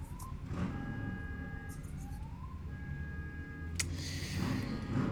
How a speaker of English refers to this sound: He's outside. Oh, set off that car alarm.